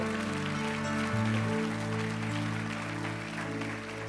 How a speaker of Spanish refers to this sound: Vamos, alguien apláudale fuerte si está conmigo.